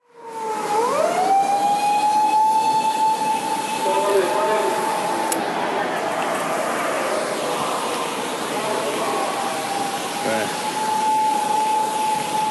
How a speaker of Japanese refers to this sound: 今パトカーがね僕を追ってねやってきましたけど振り切りましたということでね